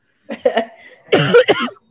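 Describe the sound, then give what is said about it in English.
A loud cluster of coughs from a person wearing a mask: two sharp bursts, a brief raspy pause, then a heavier, harsher pair of coughs, with no speech. “So I would have to cough now.”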